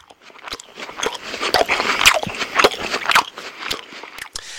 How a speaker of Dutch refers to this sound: En dit is hoe iemand met misofonie smakgeluiden hoort. Veel intenser en veel sterker.